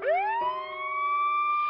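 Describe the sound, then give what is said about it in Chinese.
A fire engine siren wails loudly, its tone sweeping quickly upward, dipping briefly, then holding a steady, high, harmonically rich pitch. It comes from fire engines stopped at the front door of a house, with smoke and flames rising from the roof. No voices are heard. “家门口停了两辆消防车。”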